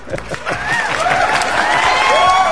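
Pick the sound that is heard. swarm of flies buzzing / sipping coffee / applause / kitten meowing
applause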